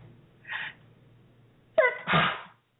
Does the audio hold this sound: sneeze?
yes